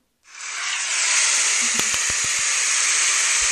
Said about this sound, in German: Warte, ich suche jetzt mal Applaus. Warte, Applaus äh, Geräusch. Soundeffekte, Geräusche. Ne, wir brauchen Applaus, Sound Ideas. Drück mal drauf.